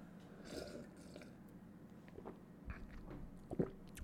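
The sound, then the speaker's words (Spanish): Quiet mouth sounds of someone sipping water and swallowing, with a few soft wet gulps and clicks spread over a few seconds and no talking. “Ah, para los que están escuchando, acabo de darle unos tragos a mi agua.”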